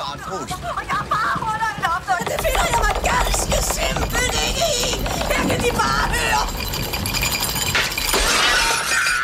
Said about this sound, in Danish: og det vi hører her, det er fru Olsens lysekrone, der falder ned efter fru Kronborg har syet på herr Kronborgs hjemmeelektrificerede symaskine.